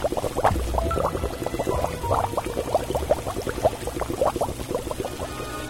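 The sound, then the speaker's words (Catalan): Water boiling in a pot on a fire, bubbling and churning steadily, a dense stream of gurgles and pops with a low rumble underneath, continuous for several seconds without any voices. “Però el porquet gran va posar al foc un ull amb aigua”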